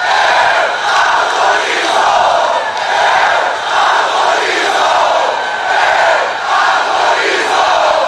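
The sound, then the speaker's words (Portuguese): A large audience laughs and claps at President Bolsonaro's remarks in a loud, continuous wash of crowd noise that swells and dips slightly over about eight seconds, with no single voice standing out. “Nesse momento, a plateia inteira sorria e batia palmas.”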